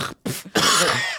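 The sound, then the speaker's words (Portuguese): A person coughs: two short, sharp bursts followed by a longer, harsh, raspy cough that trails off. No one is talking. “Uma tossola assim? de vez em quando.”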